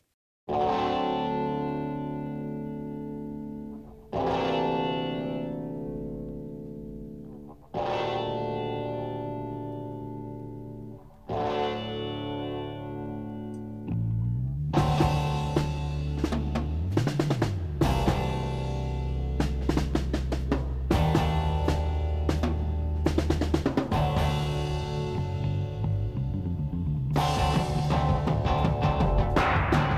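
A rock song by a trio of six-string bass, guitar and drums: four long, effect-laden chords ring out and fade one after another, then drums and the full band crash in with a loud, driving, distorted groove.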